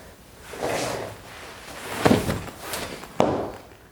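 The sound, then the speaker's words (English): A person tumbles off a chair while trying to catch a candy cane in their mouth: shuffling movement, then a loud thump with clattering, and a second sharp knock a moment later, with no talking. “that, dear listeners, is Becca falling from a chair as she fails for the third time to catch a candy cane”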